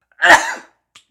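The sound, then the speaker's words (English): One sudden, loud sneeze bursts out, a sharp explosive blast that trails off within half a second, followed by a faint brief sniff or click and then quiet. “Oh, bless you, … some of that dust,”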